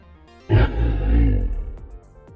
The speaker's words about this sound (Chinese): 正当大家开心的准备走过这座桥的时候，突然，传来一声刺耳的吼叫。